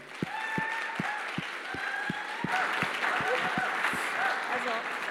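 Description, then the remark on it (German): An audience breaks into loud, sustained applause for a woman called to the front as a conversation partner, a dense wash of many hands clapping that swells slightly midway, with a steady low thumping pulse running underneath. “Lass mal einen kräftigen Applaus geben.”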